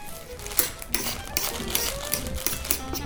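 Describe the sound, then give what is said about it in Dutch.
A knife cutting a lemon on a board: a quick run of crisp, clicky chops in a slightly uneven rhythm, moderately loud, with no one talking. “Ik ga op die citroen snijden.”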